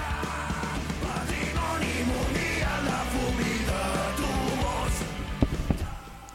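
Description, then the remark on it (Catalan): A hellish scream sound effect, loud and sustained for several seconds over a dense, noisy wash of layered sound, ending in a few sharp bursts before cutting off. “bueno, si poseu eh, aquest, això, crit infernalià.”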